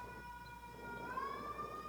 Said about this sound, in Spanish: ¿Ustedes creen que esa es una ambulancia que va porque va una mujer a dar a luz? No, es una ambulancia que va al hospital COVID.